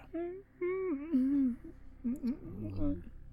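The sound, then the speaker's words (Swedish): A person playing a character in a tabletop role-playing game whimpers in a series of wavering, high-pitched whines with no words, fairly loud. The voice imitates a pained creature, broken into short bursts over a few seconds. “Om man bortsett från de kvidande ljuden från Ervilnor.”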